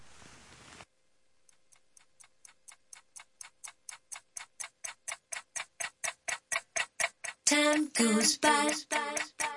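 A clock ticks steadily, the sharp regular ticks growing louder and brighter, before a burst of synth-heavy dance music kicks in near the end.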